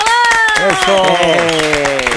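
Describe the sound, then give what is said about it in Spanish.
Dense, steady clapping from an audience welcoming actors Alex Nones and Eugenio Siler on the show Pinky Promise runs through the whole moment, with a voice speaking over the applause. “Un aplauso, por mm.”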